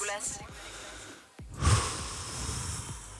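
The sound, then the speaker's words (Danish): Loud breathing: a long, airy, rasping breath, a brief pause, then another heavy, noisy breath that swells sharply before trailing off. “Det er utroligt, hvad vejrtrækninger kan gøre.”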